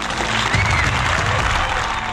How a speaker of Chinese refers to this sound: 来，让我们掌声欢迎他。